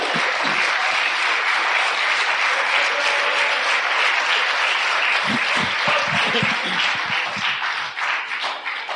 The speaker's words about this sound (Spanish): Oye, eso, usted eso se merece si un aplauso.